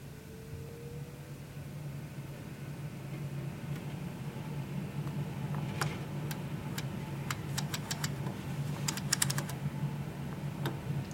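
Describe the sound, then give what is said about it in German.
A convection oven fan runs with a quiet, steady whirring hum as the oven preheats on hot-air mode at 160 degrees, while a scattered series of sharp, light clicks and ticks joins in over the second half. “Jetzt läuft der Ofen gerade warm und man hört ja auch das Geräusch, so ein Ventilatorart eher leise.”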